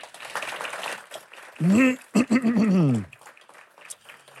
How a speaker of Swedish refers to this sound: Han kan få en applåd hörni.